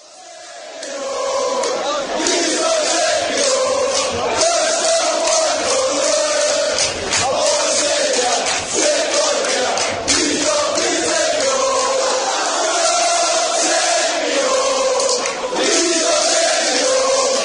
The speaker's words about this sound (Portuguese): É, e a torcida do Newcastle tem até música para falar sobre essa relação muito próxima, muito íntima entre as cerve... inclusive cervejarias, né, que patrocinaram o time e o seu torcedor.